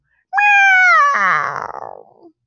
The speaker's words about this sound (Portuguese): De repente, o vulto pisou no rabo de um gato, que gritou.